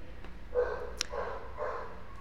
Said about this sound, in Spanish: es que la perrita se pone brava, ya sé,